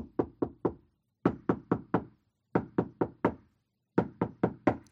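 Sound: knocking on a door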